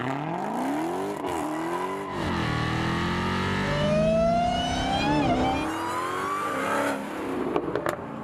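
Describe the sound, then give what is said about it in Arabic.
A powerful Dodge Challenger Hellcat car engine revs hard, its pitch climbing and falling through rising harmonic sweeps, loud, with a throaty roar that builds to a peak before settling back. “سبيشال كار دوت تشالنجر الهيلكات اشهر دوت تشالنجر هيلكات بالعالم”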